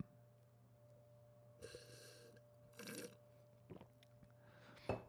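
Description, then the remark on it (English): Slurping as someone deliberately slurps a sip of coffee during a coffee tasting: a few short, airy, hissing bursts drawn through the lips, separated by brief pauses, over a faint steady hum, with no talking. “So you'll notice I slurped, and that's actually intentional.”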